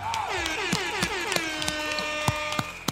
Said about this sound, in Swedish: Jag tycker vi kör en applåd och en tuta på distans idag gör vi.